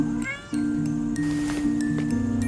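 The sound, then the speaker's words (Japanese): A cat meows repeatedly in a run of drawn-out, tonal cries with brief breaks between them, fairly loud, with no one speaking. “猫ちゃんがこっち見てるよ”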